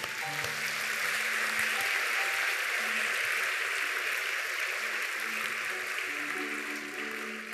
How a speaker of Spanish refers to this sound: Aplausos para todos ellos.